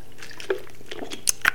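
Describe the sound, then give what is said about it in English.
A few quick wet slurps as someone sips water, with small liquid clicks and a soft swallow in an otherwise quiet moment. “Let me let me take a sip of this water because I'm finna break this down to y'all.”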